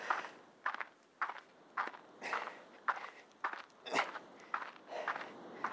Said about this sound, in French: J'ai le choix entre, en fait, j'ai le choix entre marcher sur des graviers ou tenir en équilibre sur un rail. Donc, euh, je sais pas ce qui est mieux, mais si je me casse pas la gueule là, c'est du miracle.